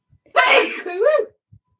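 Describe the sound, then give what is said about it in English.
A single loud sneeze bursts out with a sharp, bright onset and a short voiced tail, surrounded by near silence. “Hang on, I'm gonna sneeze.”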